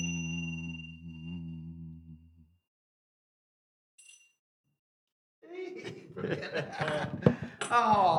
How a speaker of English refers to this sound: Oh, was that all right? Was that, was that how much humming was I doing?